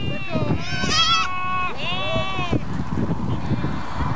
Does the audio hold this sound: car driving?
no